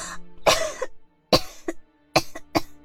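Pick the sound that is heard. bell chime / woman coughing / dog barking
woman coughing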